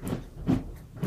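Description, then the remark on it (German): A dog scratches at a carpet in three short, rough bursts at a steady rhythm, fairly quiet, with no voices. “Du musst jetzt hier nicht den Teppich zerkratzen.”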